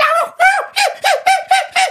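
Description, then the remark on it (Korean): A voice imitates a bird call with about seven quick, rhythmic hooting notes, each dipping in pitch, fairly loud, with no other talk. It imitates birds heard from the mountain behind the house at exactly 4 a.m. “뭐 이런 소리도 나고 새벽 4시에 정확히 그래서 새들은 4시에 그 저기 번식을 하나 봐요.”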